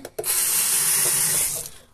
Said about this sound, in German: Okay, Moment, dann gehe ich mal ins Bad. Hier sind wir, hier ist der Wasserhahn.